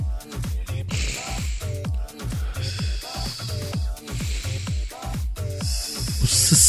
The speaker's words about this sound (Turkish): kedir burnum tıkalı. Nefes alırken ötüyor ya.